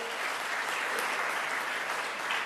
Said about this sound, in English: wonderful answer applause for you sir